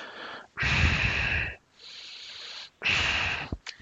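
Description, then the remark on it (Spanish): A voice imitates a man's loud, heavy, primal snorting breathing: two forceful, rasping bursts with a softer wheezy inhale between them, ending in a short sniff. “el tío no es que se vaya a poner a gritar, pero deja llevar su respiración al modo más, más primario, a lo más primate, y empieza a sonar algo así.”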